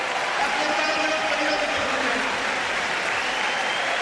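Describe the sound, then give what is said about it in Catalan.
A crowd of about 3,500 supporters at Pedro Sánchez's final campaign rally cheers and applauds continuously, a dense, steady roar of clapping and shouting voices with no pauses, loud throughout. “ha estat molt bé que ens pogués rebre amb aquests crits de aquests 3.500 seguidors”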